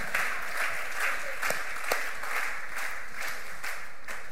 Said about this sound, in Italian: facciamo un applauso.